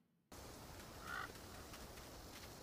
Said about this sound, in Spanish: Que es la zona desértica y aquí tenemos un poco de grillos, de animalillos por ahí correteando. Sí, pasan bastante luego, al otro por arriba. Más se le escucha cuando va llegando. Algún. algún pájaro también.